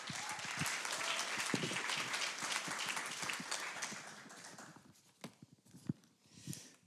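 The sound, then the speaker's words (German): An audience bursts into dense, steady applause to encourage a speaker, holding for several seconds, then thinning out into a few scattered, isolated claps before fading away. “Und kommt, lasst uns ihn ermutigen, einfach durch einen Applaus.”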